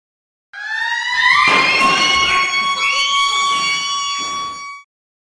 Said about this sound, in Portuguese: E se junto da sirene pessoas começassem a gritar?